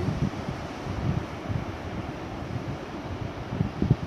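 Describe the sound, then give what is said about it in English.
Steady outdoor wind buffets the microphone at a beach, with a low rumbling wash of surf underneath; a continuous, fairly loud seaside ambience with no voices. “And then found myself down here at the beach.”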